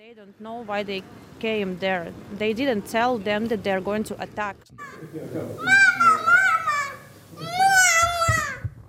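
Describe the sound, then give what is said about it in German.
A few toddlers babble and call out with high, lively voices, squealing and chattering in bursts as they romp and play in a cleared-out hotel conference room near a border crossing, with some toys on the carpet. “Nur wenige Kleinkinder toben hier im freigeräumten Konferenzzimmer.”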